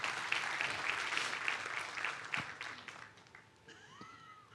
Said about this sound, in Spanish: Bueno, si se la cree, dése un aplauso, por lo menos.